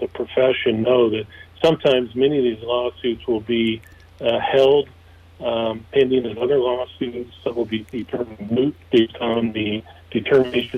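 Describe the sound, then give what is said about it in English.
Someone talks over a phone line that is breaking up, the voice thin and band-limited, with choppy moments and brief dropouts between phrases throughout. “you're, you're you're breaking up just a little bit.”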